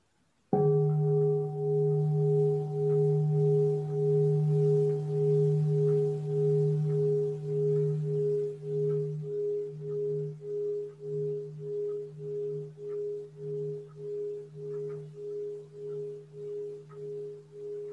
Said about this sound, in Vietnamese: Xin sư cô thỉnh một tiếng chuông cho mọi người relax.